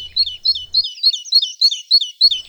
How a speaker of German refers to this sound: Denn jede männliche Kohlmeise hat eine andere, einen anderen Gesang. Das heißt, wir hören derzeit hier die hallischen Kohlmeisen, die klingen ungefähr so.